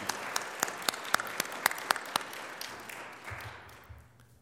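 An audience at a church service applauds in thanks and gratitude to a minister for his ministry this year, a dense patter of many hands with a few sharper, louder claps standing out, then the clapping thins and fades away over a few seconds.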